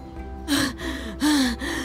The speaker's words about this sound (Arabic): فحين وصل عندنا بدأ يلهث وهو يحاول التحدث